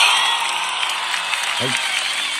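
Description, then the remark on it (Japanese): Steady applause sent to the listeners in thanks for their support, a dense, even wash of many hands clapping that stays loud throughout, with a brief low voice-like call cutting in near the end. “えー、皆様に拍手を送りたいと思います。”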